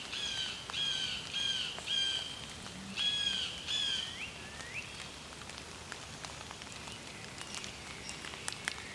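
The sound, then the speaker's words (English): A blue jay calls in quick series of harsh, slightly nasal notes, two bursts of several calls each, over a steady hiss like light rain with scattered drips and ticks. “Blue jay.”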